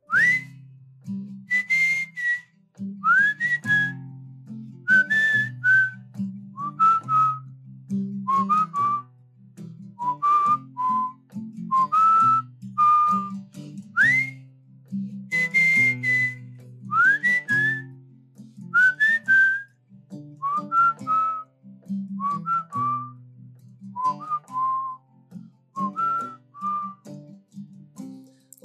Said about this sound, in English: Well, it segues us to take a moment now to listen to your music. Thank you.